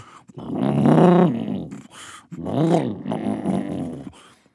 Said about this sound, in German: Er hält sich seinen Bauch, das Grummeln ist ganz schön laut.